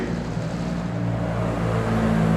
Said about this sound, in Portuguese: Esse helicóptero tá vindo para buscar a gente, tá vindo para buscar a gente.